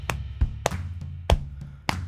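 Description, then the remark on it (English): Hands tap a steady, even rhythm on the front of a chest in a rhythm exercise, about seven hits in two seconds. Dull low thumps alternate with sharper slaps, and no one speaks. “So, to tap, what you want to do is just tap on the front of your chest like this.”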